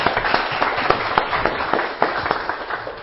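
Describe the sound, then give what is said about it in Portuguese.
A round of applause from a crowd: dense, irregular clapping that stays fairly loud and steady for about three seconds, with sharper individual claps popping out of the wash. No one speaks. “Uma salva de palmas aí pra contribuição.”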